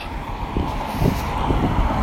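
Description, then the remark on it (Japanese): Steady low road rumble from several cars going by on a street on a cold New Year's Day, a continuous wash of engine and tire noise with slight swells, heard outdoors with no voices. “車はね、何台か結構通ってるんですけど、どうなんでしょうね、初詣に車も多いのかな。”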